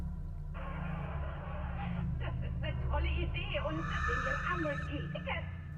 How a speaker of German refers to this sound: Geräusche, die ich höre. Ein Fernseher mit der Vormittagsshow. Obwohl außer mir niemand hier wohnt im ganzen Haus. Es klingt, als käme es aus der Wohnung über mir.